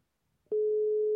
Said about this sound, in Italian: Sì, sì, pronto. Squilla, squilla quasi alto.